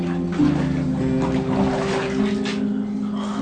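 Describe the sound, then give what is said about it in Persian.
Water is poured over a person being washed, pouring and splashing steadily for a few seconds, a continuous rushing spatter with a low droning hum running underneath. “آب بریز”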